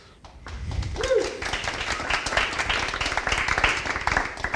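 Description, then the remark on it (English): A crowd in Austin applauds steadily for Jason Cohen, founder and CTO of WP Engine, before a session on open source, dense rapid clapping at moderate volume, with a brief voice or cheer near the start before the clapping settles into an even wash. “You got to clap for Jason.”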